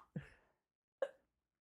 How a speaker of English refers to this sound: oh you stopped to sneeze? Yeah. What? That's amazing. Anywho, bless you.